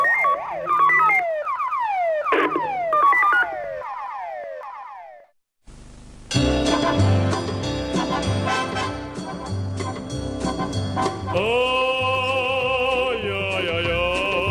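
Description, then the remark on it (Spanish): A loud electronic police patrol car siren: quick repeating downward-sweeping chirps, a brief pause, then a harsher buzzing wail with rising tones, with no one talking. “La radio del, patrullero.”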